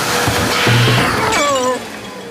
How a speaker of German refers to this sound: Ich bin gegen den Tisch gefahren.